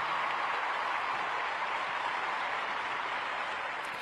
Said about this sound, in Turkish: Yani araya da bir alkış gelir diye düşünüyorum.